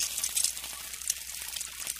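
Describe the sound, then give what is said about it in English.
Steady, crackling sizzle like food frying in a hot pan, a dense hiss of tiny pops running continuously, with no voices. “The sun cooks them.”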